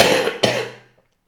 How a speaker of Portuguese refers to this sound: Ui, já comecei nesta de fazer pausa, sabem? Já comecei com a tosse e o pausa, pá.